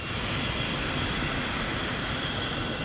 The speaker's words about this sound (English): The plane is like a cargo plane or something, because I remember it has the seats this way, like on a bench